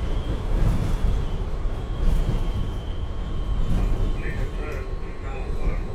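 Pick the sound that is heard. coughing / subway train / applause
subway train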